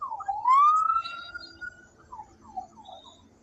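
A police car siren sweeps upward into a sustained wail, then breaks into a few quick falling yelps that fade a little, with no voices over it.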